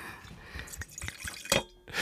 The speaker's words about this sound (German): Achso, ich muss mir auch noch was einschenken. Hupsi.